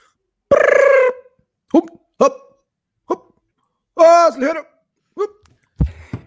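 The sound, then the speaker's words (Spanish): A single voice mimics the clamor of a school gym class: one long shouted call, then scattered short yelps and a wobbling, drawn-out cry, spaced irregularly with silence between. “¿cómo se escucharía eh, una clase de educación física?”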